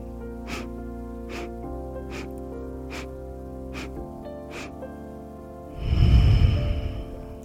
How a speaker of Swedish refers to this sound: Jag ska ge ett exempel. Jag andas in i sex delar här.